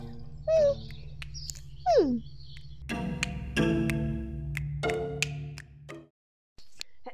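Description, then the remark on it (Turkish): A crow calls: a couple of short, bent squawks followed by several longer, harsh caws in a loud run, then a brief silence near the end. “Evet ben kargayla anlaşmam lazım şu an. Bir dakika çekilir misin?”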